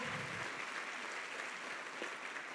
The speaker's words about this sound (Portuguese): Eu peço uma forte salva de palmas para o seu pastor.